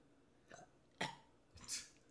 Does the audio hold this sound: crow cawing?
no